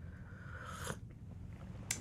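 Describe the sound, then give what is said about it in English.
A quiet slurping sip of tea from a cup in a studio, rising briefly and fading, followed a moment later by a soft click like the cup being set down. Nobody speaks. “Let me just sip my tea one more time.”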